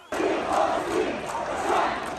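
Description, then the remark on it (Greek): A large crowd of protesters in front of the United States consulate in Istanbul shouts together in loud, rising chants, the roar swelling in rhythmic waves with no single voice standing out. “Μπροστά από το προξενείο των Ηνωμένων Πολιτειών στην Κωνσταντινούπολη, το κλίμα είναι τεταμένο.”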